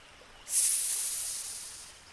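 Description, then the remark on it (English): A sharp, sustained snake hiss, starting abruptly and holding steady for over a second and a half before slowly fading, fairly loud with no voices. “Oh my, you are very unique. I will call you Serpent.”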